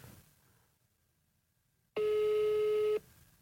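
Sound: phone call ringing tone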